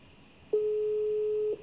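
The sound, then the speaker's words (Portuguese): A single steady electronic phone tone sounds for about a second from a phone on speakerphone, a clear pure beep from a call that goes unanswered, with faint background hiss and no voices. “Será que ele ficou estressado? Ele não vai me atender mais?”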